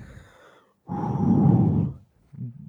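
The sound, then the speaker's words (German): A person imitates heavy, exhausted breathing: a soft breath, then a long, loud, rough exhale lasting over a second, followed by a short breathy sound. “dieses, dieses Atmen, dieses schwere Atmen.”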